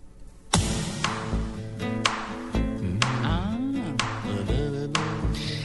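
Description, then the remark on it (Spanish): An upbeat dance pop song with very sad lyrics plays loud, driven by a steady punchy beat with bright synths and a sung melody gliding over the top. “Es extraño como algunas veces canciones que son muy tristes terminan siendo alegres en su música.”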